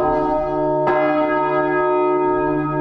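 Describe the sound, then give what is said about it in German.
The large church bell rings loudly at the end of a bell inspection, its deep sustained tone humming with rich overtones, with a fresh strike landing partway through as the resonance continues without pause. “Zum Abschluss das Geläut der großen Glocke.”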